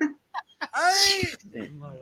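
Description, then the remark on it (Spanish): A single loud sneeze bursts out, a sharp noisy blast with a voiced edge, preceded by a few short catching breaths and followed by soft murmuring. “Salud.”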